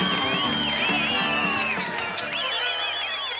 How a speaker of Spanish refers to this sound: Entre el público estaba el periodista Bernardo Neustadt, que tuvo que irse por el abucheo de la gente.